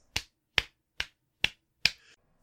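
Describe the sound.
Five crisp taps in a steady walking rhythm, mimicking footsteps, about two per second with nothing else in between and no talking.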